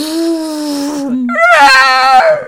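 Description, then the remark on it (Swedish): A voice mimics the shrill, wavering scream of a TIE fighter flying by, a sustained high-pitched whine that dips and then surges louder with a trembling, vibrato-like edge. “Eller när TIE Fighters flyger förbi med det här eh,”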